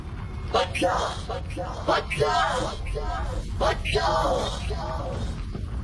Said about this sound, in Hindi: और वहीं अचानक से पूरे होटल का माहौल अपने आप बदल जाता है पूरा का पूरा होटल जोर जोर से उनकी ओर चीखने लगता है